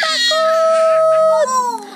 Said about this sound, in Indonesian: Cican teriak kaget. tenang Cican, ini kan kerangka dinosaurus bohongan, ujar Monsta sambil tertawa.